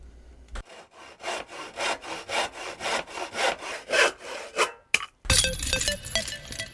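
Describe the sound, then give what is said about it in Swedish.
A hand saw cuts through wood in quick, steady back-and-forth strokes, about a dozen rasping pulls, followed by a brief pause and a burst of other noisy sound. “Jag, jag ser här att du vill ta bort Nicky sågar.”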